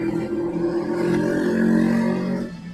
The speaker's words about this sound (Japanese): バイクうるせえ。ねえ、たまにめちゃめちゃうるさいバイクおらんすかなんか知らんけど。あれ、もうちょっと防音装置をつけてほしいですね。あの、うるさいバイク。